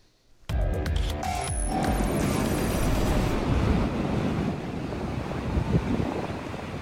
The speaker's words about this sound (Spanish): Y escuchan, esto es la playa de Sunset Beach en Huntington Beach, después de que fue cerrada el público tras informes de, escuchen, tiburones agresivos.